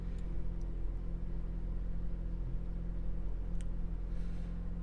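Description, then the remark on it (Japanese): A car engine idles with a steady, low, droning rumble that stays even throughout, with only faint clicks in the background and no voices. “果たしてどんな風に録音されるでしょうかちょっとわかりませんが、さあ、今からエンジンをかけるとこからやってみましょう。”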